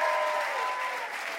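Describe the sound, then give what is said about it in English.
Steady, dense applause from an audience, a continuous wash of clapping at even loudness throughout, with no one talking. “we would like to give you a Ask Me Another Rubik's Cube and a huge round of applause for being delightful”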